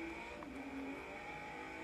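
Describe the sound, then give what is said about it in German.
A Nissan race car engine roars in a steady, sustained whine as it comes up during a race but fails to overtake. Its pitch holds mostly level with a slight dip partway through, loud and continuous with no voices. “Da kommt der, da kommt der Nissan. Konnte aber nicht vorbeiziehen.”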